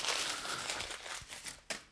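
Newspaper being crumpled into small balls and put into a stove to light it, a steady dense crackling and crinkling of paper with a few sharper crunches near the end, with no voices.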